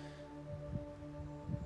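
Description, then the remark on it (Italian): Soft wind buffets a microphone outdoors, with low rumbling gusts swelling twice over a steady faint hum. The sound is quiet, and no one speaks. “c'è un po' di vento, lo si può sentire.”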